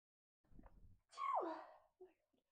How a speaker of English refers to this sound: Oh my god, I'm just gonna sneeze.